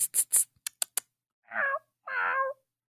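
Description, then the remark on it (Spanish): A man's voice imitates a cat, giving two drawn-out meows after a few short hissing and clicking sounds, with no other talking. “Estoy confundido, no sé si es un gato de verdad ahora”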